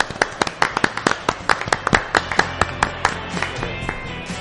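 Audience applause: a steady patter of sharp, crisp hand claps lasting several seconds, moderately loud and fairly even in rhythm, with no voices standing out.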